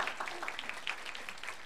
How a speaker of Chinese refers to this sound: 愿意这样做的，拍手把荣耀归给主，好不好？哎，可以大声一点吗？